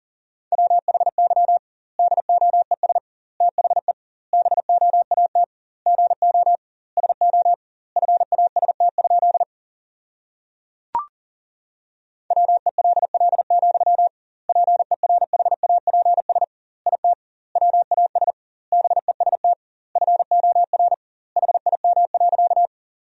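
Fast Morse code sent at about 40 words per minute, sentences from the top 500 words with double word spacing: a single steady mid-pitched tone keyed in rapid clusters, separated by short pauses, with one longer gap and a brief click midway. No voices.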